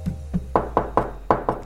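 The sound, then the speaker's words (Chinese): A merchant at a market knocks a hammer on his large wooden crate in a quick series of about eight hard, hollow thuds, the first two softer and duller, the rest louder and sharper, with no voices. “用锤子敲着他的大木箱，扯开嗓门大声喊”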